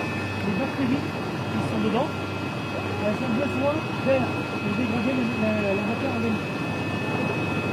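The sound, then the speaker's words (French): Continuous dense churning of air bubbling up through a wastewater basin, steady and fairly loud, over a low mechanical drone, with faint indistinct voices somewhere in the background. “il y a des bulles qui vont commencer à venir.”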